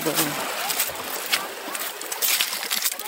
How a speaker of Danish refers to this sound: lige en lille smule bølger, der krabber lidt i kanten her. Men vandet er helt rent.